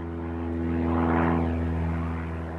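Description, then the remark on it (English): A small propeller plane drones steadily overhead, its engine hum swelling louder for a moment as it passes, then easing off slightly, with no voices present. “After a medical checkup, Dennis was cleared for training, and as the new season got underway, he was soon required to fly for matches around Italy, often in small propeller planes.”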